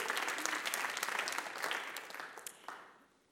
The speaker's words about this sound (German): Jesus kommt jetzt und da steht in Johannes 15, Vers 5, auch Jesus kriegt einen Applaus, oder?